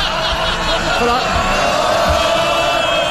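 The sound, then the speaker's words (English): A large crowd of MPs cheers and shouts in the parliamentary chamber, a dense, sustained roar of many overlapping voices with scattered whoops, loud and continuous throughout. “Speaker, I, I, love this quaint tradition where the more they slag him off behind his back, the later they cheer In here.”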